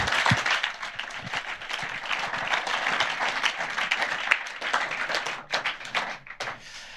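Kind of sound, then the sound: crowd, audience applause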